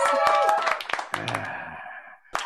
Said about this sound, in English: Clap it up. Yes.